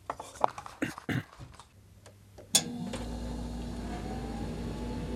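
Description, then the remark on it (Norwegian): A few sharp clicks and clatters, then a coffee machine kicks on with a sudden thump and settles into a steady mechanical hum and whir of brewing. “Det er kaffemaskin.”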